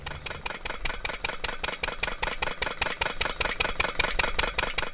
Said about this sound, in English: The sound of the borewell pumping is constant and grating, but this process is necessary for collecting what some argue is a superior kind of salt.